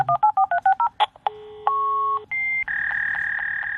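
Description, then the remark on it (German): A quick run of about seven dual-tone dialing beeps for the telephone number, followed by a modem's steady handshake tones shifting pitch in blocks, high and low tones signalling zeros and ones, loud with a faint hiss underneath and no voices. “also wie wir es zum Beispiel bei so einem Modem haben”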